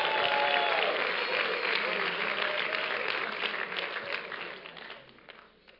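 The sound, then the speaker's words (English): An audience applauds a man wearing a bow tie, with dense, steady hand clapping that holds strong for several seconds, then thins out and fades as the clapping dies away. Faint voices mix in underneath. “Give him a big hand clap right there.”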